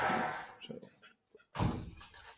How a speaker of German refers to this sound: Man merkt, wir haben es hier mit Bauleuten zu tun. Da ist immer Krach. Die Baustelle gegenüber. Und der Frühling kommt, deswegen war das Fenster offen.